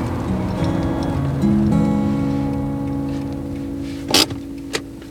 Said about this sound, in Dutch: We parkeren de auto in een aangeharkte buurt.